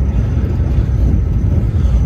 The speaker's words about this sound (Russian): Чух -чух -чух вот смотрите, как мы несемся. 250 километров в час разгоняется эта штука поезд Siemens.